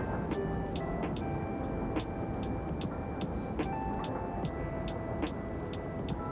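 Steady, constant rumble of a train carriage interior with light clicks and knocks recurring every second or so, mixed with soft lo-fi music drifting faintly through the background.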